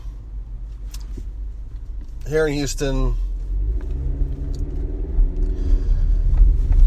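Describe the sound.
Steady low road rumble of a car driving, loud and continuous, with engine drone rising slightly toward the end; a man speaks briefly over it near the middle.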